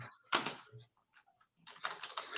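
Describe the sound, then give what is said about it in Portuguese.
Loud, clacky computer keyboard typing: one sharp keystroke burst, a short lull, then a rapid flurry of overlapping key clicks. “Você tá, tá, te incomodando o meu teclado?”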